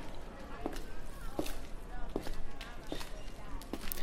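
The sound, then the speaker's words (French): Footsteps of a person resuming a walk at an even, unhurried pace, about five distinct steps striking a hard surface, over a steady wash of outdoor ambience and faint background voices. “Maintenant, on reprend notre marche.”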